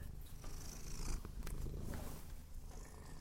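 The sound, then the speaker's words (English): A cat purrs steadily right up against the recorder, a continuous low rumbling drone with a few soft rustles and bumps layered over it as it goes at the recorder, and no one speaking. “Kitty, you're going cuckoo.”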